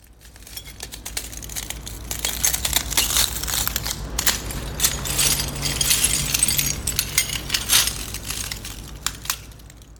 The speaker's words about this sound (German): Was haben wir da gehört? Ähm, das waren Glasscherben. Als ich ankam in Beirut in der Nacht nach der Explosion, äh, also ein Tag war vergangen, da stand ich weit nach Mitternacht vor meinem Haus.